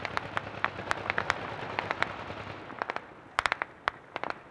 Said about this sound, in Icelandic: Talibana rósa sigri í Kabul eftir atbyrði næturinnar. Fagnar ára ákaft og heyrði skotkvellir víða um stræti afgönsku höfuborgarinnar eftir að bandaríkja hér hafði yfirgið við landið.